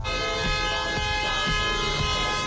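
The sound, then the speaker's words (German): Car horns blare continuously in dense, stalled traffic at Praterstern in Vienna shortly after 8 a.m., several overlapping sustained honks layered over a low rumble of idling engines, loud with no talking. “Heute kurz nach 8 Uhr früh am Wiener Praterstern. Alles steht. Wieder mal.”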